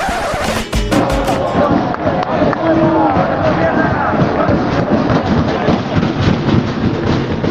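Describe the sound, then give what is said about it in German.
Fans pound on the steel scaffold stands of the Estadio Fernando Torres in Fuenlabrada, near Madrid, in a loud, continuous rumbling clatter, mixed with the roar of a dense crowd, a few sharp bangs standing out near the start. “zwei von den drei Tribünen hier bestehen aus so einem Gerüst, normale Stahl Stahlkonstruktion. Da wird dann immer ordentlich getrommelt.”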